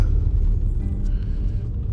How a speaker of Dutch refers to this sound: Oh, nou, een auto. Wat een drukte.